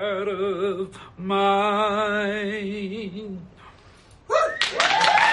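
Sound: applause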